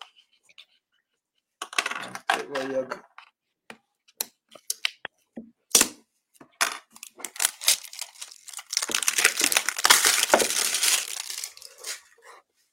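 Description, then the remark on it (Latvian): Packaging of a QBS FP kit, the fingerprint version, being torn open: scattered crisp crinkles, snaps and clicks, then a sustained noisy rip with rustling. A short spoken word appears near the start. “Nu tad raujam viņu vaļā.”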